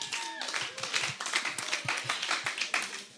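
A crowd applauds with steady, dense, moderately loud clapping that runs throughout. Brief voices can be heard faintly beneath the clapping near the start.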